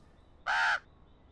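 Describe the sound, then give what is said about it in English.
A resident raven gives one short, harsh caw, clear, lasting about a third of a second against a quiet background with no talking. “That is our resident raven.”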